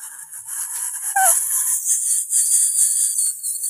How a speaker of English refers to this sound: so uh, some kind of vortex starts mm. somewhere in my throat and this produce uh, some sort of i wouldn't say vibration but something like that some reflections mm-hmm. inside and mm-hmm. this very very tiny whistle comes out